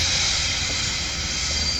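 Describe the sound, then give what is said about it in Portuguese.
A train pulling into a station, heard as a loud, steady hiss of steam with a low rumble underneath, continuous throughout, with no voices. “os três homens se preparando para receber alguém que chega no trem”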